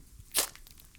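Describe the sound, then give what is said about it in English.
A single short, wet squelching splat as a small falling bundle lands, sharp and loud for an instant before fading back into near silence. No voices. “There is a scream, a squelch.”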